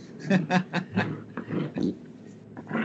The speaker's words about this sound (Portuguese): E o cachorro tá enchendo o saco.